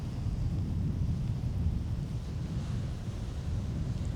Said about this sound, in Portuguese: Ó, eu falo ao vivo aqui da praia de Itaparica e olha, não tem muito movimento, mas eu estou numa faixa que é um mar muito agitado